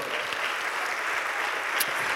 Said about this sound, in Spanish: Dele un aplauso a Dios por eso.